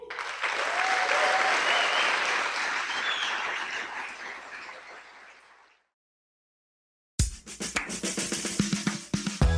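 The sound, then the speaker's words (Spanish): Loud, sustained applause from a large crowd for the founders of Amway swells and then slowly fades out over several seconds, followed by silence and then a burst of other sound. “Y de verdad les pido el más fuerte los aplausos para los fundadores de Amway.”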